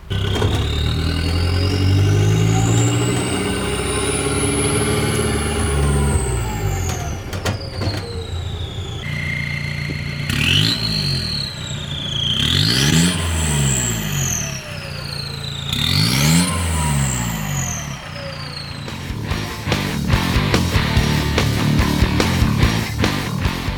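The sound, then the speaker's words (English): A diesel truck engine revs hard while its turbo lets out a rising, high whistle, followed by three quick rev bursts that spool the whine up and down, ending in a rough, loud rumble. “Oh man, some cool turbo sound clips, man.”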